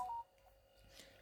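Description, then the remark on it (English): A short electronic notification tone chirps once at the very start from a phone being used as a microphone, clean, then fades into quiet low room noise with no talking. “That's my phone again, guys. Don't forget, I'm using it as a microphone's notification.”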